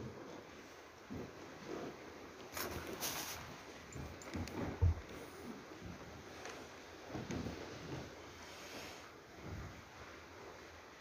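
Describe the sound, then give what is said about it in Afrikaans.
Steady rain falls, a continuous broad hiss with scattered louder patters and splashes, heard on its own at a moderate, even level with no one speaking. “Here, hoe lieflik is hierdie klank van die reën.”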